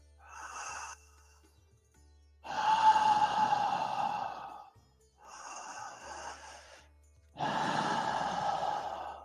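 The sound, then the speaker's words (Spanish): Two slow cycles of loud, breathy breathing through the mouth, each a softer airy inhale followed by a longer, stronger rushing exhale, with no talking. “Y entonces haces igual la presión, haces todo igual, nada más que siempre y todo el tiempo estás respirando por la boca, o sea, es decir, así, él dice que tiene que ser una respiración de esta forma.”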